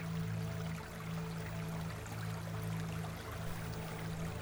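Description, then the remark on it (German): Soft, steady trickling water droplets with faint splashes run continuously over a low background hum, with no voices. “Es tanzt auf seinem Stein und zusammen mit ganz vielen anderen Geistli und Wassertröpfli gibt es im Flick ein Konzert. Hell und klar, aber es so leislig, dass es für den Flick tönt wie ein Windspiel im Wasser.”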